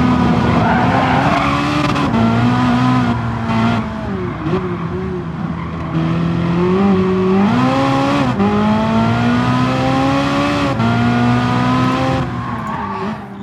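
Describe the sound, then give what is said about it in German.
Loud racing game cars skid and roar without pause, high engine whines sliding up and down over steady screeching tires, continuous, with no voices. “Ja, wieder sicher schon am Ton gehört. Ein bisschen lame eigentlich, weil man keine Musik drin haben Das heutige Spiel ist Gran Turismo Sport, ein Rennspiel.”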